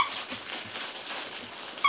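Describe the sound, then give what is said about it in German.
Nine small dogs, mostly mixed breeds, yip and whine in a private dog hospice set up in a house, with high squeaky cries and harmonic whimpers scattered through a busy, noisy background and a sharper yelp near the end. “Und ich bin auch schon umringt von neun kleinen Hunden.”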